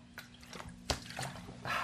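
Water held in someone's hand trickles and drips in a few short, soft splashes, ending in a brief rush of pouring. No one speaks.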